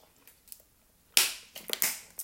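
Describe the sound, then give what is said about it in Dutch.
Someone takes a sip of water: a few quiet taps, then a run of sharp, crackly bursts like a plastic bottle being squeezed and handled. No one speaks. “Ik ga even een slok water nemen, dat ik ehm, nog even verder kan.”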